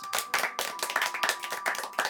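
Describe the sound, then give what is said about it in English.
A brief burst of enthusiastic hand clapping from a small group, dense and fast with overlapping claps, fairly loud, with no voices. “Everyone, prepare your applause, for I have spotted the missing dandelion oil.”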